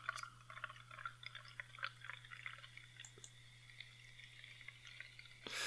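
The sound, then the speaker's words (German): A cloudy helles (light lager) beer fizzing in a glass: a quiet, steady crackle of tiny bubbles popping, over a low electrical hum, ending with a brief louder rustle. “Ich höre das bis hier sprudeln.”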